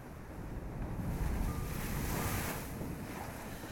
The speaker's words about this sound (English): Oh, it's a keen wind.